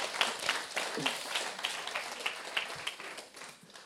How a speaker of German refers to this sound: Danke, könnt ihr mal einen Applaus geben.